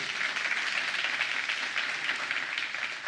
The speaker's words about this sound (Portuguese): Você pode aplaudir o Senhor Jesus por isso?